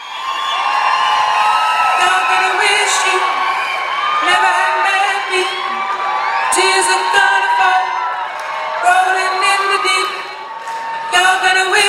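A live pop song with sustained sung melody over a loud, steady roar of a cheering crowd, whoops and yells rising and falling throughout.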